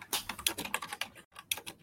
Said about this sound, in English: get your microphone off your keyboard.